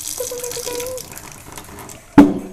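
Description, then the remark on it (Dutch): Instant coffee pours in a thin, steady stream into a still-dry glass, giving a ringing, rising tone over a soft hiss, then a sudden sharp knock near the end. “En luister naar mijn koffie. Magisch.”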